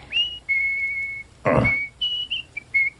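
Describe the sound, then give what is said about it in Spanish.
A clear, high whistled melody of several steady notes, some long and some quick and clipped, interrupted midway by a brief loud rushing burst; no voices. “Allá en su palacio silbaba un trino de rubí.”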